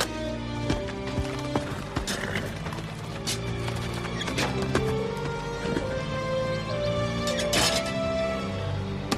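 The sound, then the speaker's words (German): A horse whinnies while hooves clip-clop in sharp, irregular knocks, loud over a dense, busy background with no talking. “Hat es so ein Pferd etwa wirklich gegeben?”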